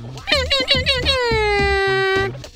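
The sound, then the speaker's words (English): A beatboxer's voice imitates an air horn with sounds made in the back of the throat or nose: a few quick honking blasts, then one long blaring, slightly falling tone over steady thumping bass beats, loud. “And there are all kinds of cool tutorials online to help you hone your skills and create your own sounds even advanced sounds in the back of your throat or nose, like these the air horn.”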